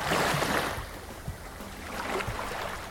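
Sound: ocean waves sleep sound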